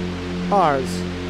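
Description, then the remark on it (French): A steady synthesizer drone from two oscillators on a Minimoog holds a low F sharp under a wash of white-noise hiss, while a short voiced exclamation rises briefly over it midway. “Ça, il le génère sur son mini-moog oh, avec deux oscillateurs sur un Fa dièse. Avec du bruit blanc par-dessus.”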